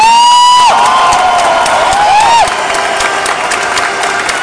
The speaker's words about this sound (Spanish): Ese es el aplauso que usted tiene que dar.